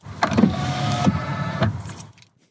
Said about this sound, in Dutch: Wat is dat? Ja, dit is uh, inklappende spiegels. Ja. ja. Ik vind het al wel fijn, dat geluid. Dan weet ik dat mijn auto op slot staat. Ja, is, ja Volvo hoor. Ja. ja. dat is wel handig inderdaad.